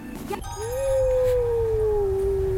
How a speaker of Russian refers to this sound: Вдруг в кустах видим светятся чьи-то глаза и странные звуки волки